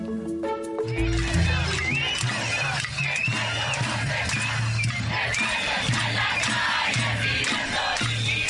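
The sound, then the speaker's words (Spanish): A large crowd of protesters in Chile shouts and chants continuously, many voices overlapping in a loud, dense roar, with a low repeating drum-like thump pulsing underneath throughout. “Cada cartel y cada grito exige una demanda diferente.”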